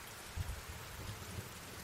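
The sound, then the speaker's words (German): Steady, soft rain patters on a tent roof overhead, with a couple of faint, low rumbles of distant thunder rolling underneath. No voices. “Als ich in meinem Zelt lag, hörte ich den Regen aufs Dach tropfen und hin und wieder auch ein entferntes Donnern.”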